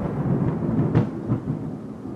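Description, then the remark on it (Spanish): Low, rolling thunder rumbles steadily for a couple of seconds, with a few sharper swells cracking through the deep, continuous roar, moderately loud and with no voices. “La voz, la dura voz de la gran reina se confundía con el trueno.”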